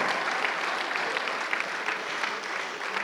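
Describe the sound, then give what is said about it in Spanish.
An audience applauds the Lord steadily during a morning church service, a dense wash of many hands clapping at once, sustained and fairly loud throughout with no voices standing out. “Dele un aplauso al Señor esta mañana.”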